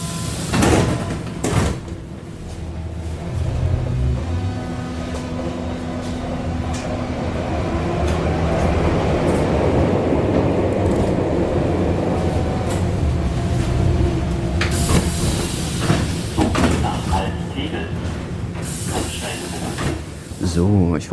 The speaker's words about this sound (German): Falls jemand den Eindruck hatte, dass man in der U-Bahn gerade die Stationen nicht verstanden hat, dann lag das nicht an der schlechten Aufnahmequalität, sondern man versteht sie tatsächlich nicht.